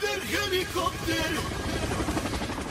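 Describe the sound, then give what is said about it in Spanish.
A helicopter's rotor chops in a steady, rapid rhythm with broad engine noise, fairly loud, while a voice is heard over the first half. “Rompa el colchón de la rutina con nuestra única cama copter. helicóptero.”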